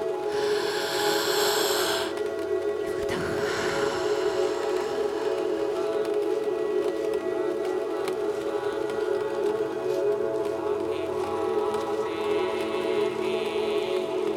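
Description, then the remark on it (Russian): Several people with eyes closed draw in a deep breath together during a guided breathing meditation, a breathy rush of air in the first couple of seconds, with a steady low drone humming throughout and no talking. “Давай еще раз вдох.”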